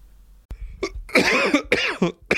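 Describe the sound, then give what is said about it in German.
A loud cough burst from a person who is exhausted and thirsty, not ill: a sharp onset followed by several rough, rasping hacks in quick succession, with a brief throat-clearing quality, no speech. “Oh, hustest du, bist du krank?”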